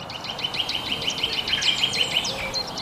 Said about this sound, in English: And then I also like watching him and how he dances around the trees, goes into all the nuts and crannies and gets all the insects. And the bird song, they have like a peep peep peep,